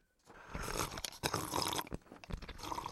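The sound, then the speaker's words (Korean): Someone slurps the last dregs of sikhye, a sweet Korean rice drink, in a yellow-clay kiln sauna: a run of irregular, hissy sucking bursts with brief gaps, moderately loud and alone, with no voices. “얼마 안 남은 애꿎은 식혜 소리만 황토불가마를 가득 채우고 있었죠.”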